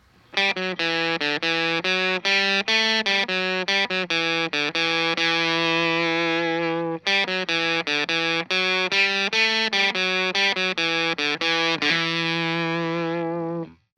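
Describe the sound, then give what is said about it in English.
An electric guitar through a Pep Box fuzz pedal and a miked Vox AC15 tube amp plays a run of thick, buzzy sustained notes and chords, loud, with a brief dropout midway where two audio files connect and a final ringing chord. “Let's listen to the Pep Box on its own now.”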